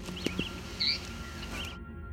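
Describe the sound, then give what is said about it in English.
A cedar waxwing gives a few thin, very high-pitched calls, faint and brief, against a soft outdoor hiss, with the clearest call coming near the middle. “That's the cedar waxwing, and if you didn't hear it, here it is again.”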